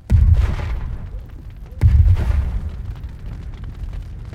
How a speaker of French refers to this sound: Il est minuit, ce 5 octobre 94. À Chéry, village de 300 âmes près de Genève, d'habitude si calme, des détonations fortes viennent fendre le silence de la nuit.